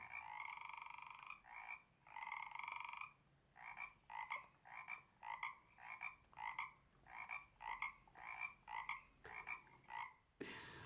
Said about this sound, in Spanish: Ay, me encanta este sonido. Muy, muy bien. Por supuesto que sí, este era el sonido de una rana. La rana la rana.